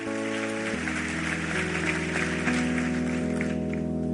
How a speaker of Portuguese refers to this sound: Aplauda Ele, vamos ficar em pé, vamos embora.